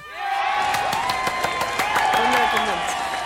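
Steady applause from a crowd, dense rapid clapping with some cheering mixed in, loud and sustained throughout.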